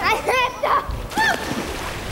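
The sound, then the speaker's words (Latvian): A kitten is thrown into a pond by boys, making a sloshing splash followed by a short burst of water splatter. Brief high-pitched cries sound before and after the splash. “Otrs teica, ka šis gribot redzēt, kā viņš māk peldēt, un iesvieda to dīķi.”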